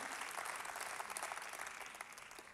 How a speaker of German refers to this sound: Und darum nochmals einen großartigen Applaus.